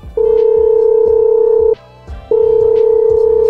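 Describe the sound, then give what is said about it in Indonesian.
A phone line's dialing tone while calling a boyfriend: two long, steady electronic beeps separated by a brief pause, loud, with no talking. “Gak bisa gini nih, oh, ah, gue mau telepon pacar gue dulu.”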